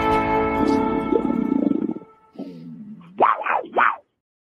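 A loud big-cat roar rumbles for about two seconds, then drops into a lower growl before two sharp, snarling bursts rise and fall. No one speaks.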